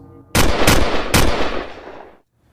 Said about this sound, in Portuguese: Não tão depois, o homem sacou de seu cobre um revólver engatilhado. Fez se silêncio ainda mais profundo. Bill abriu os lábios ressecados para tentar dialogar e, Bruno, fervendo impulsividade, espremeu o gatilho três vezes.